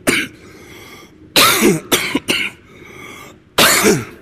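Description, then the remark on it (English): A person coughs in several harsh, rasping bursts, a short one followed by a cluster of three and then one more after a pause, fairly loud with some throaty clearing. “The lovely thing about having a throat that sounds this awful is that it often comes on at moments of, of which aren't a little bit dramatic, but make it sound so.”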